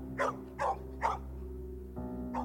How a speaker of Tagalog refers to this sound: panay na ang tahol ni Bantay sa likuran ko habang naglalakad siya ng patalikod.